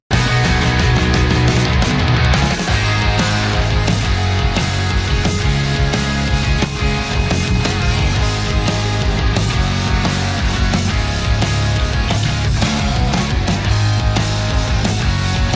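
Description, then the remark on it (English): A loud, driving rock band plays a repeating guitar riff with heavy bass and steady drums, sustained and dense throughout with no voices and no organ. “And that would sound like this. I'm going to mute the organ for you guys.”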